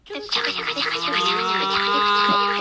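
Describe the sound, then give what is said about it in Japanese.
Thin, tinny music with a hissy, buzzy treble plays continuously for a couple of seconds, sounding compressed and tinny like sound leaking from earphones turned up loud. “まあ、イヤホンして歩かないよっていう人は、イヤホンをしている人が大音量でイヤホンを聴いている人、イヤホンから音楽を聴いている人がいると仮定してください。”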